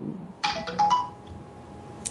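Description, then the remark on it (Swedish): A mobile phone text message alert chimes once for a text from T-Mobile about the latest phone bill, a brief run of quick electronic notes lasting about half a second, then quiet with only faint background hum. “ja, du fick sms kanske du hörde? Ja, jag hörde det. Det var tydligt.”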